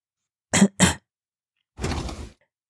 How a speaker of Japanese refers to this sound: 弟は咳き込みました。咳き込みました。きなこが喉に詰まりました。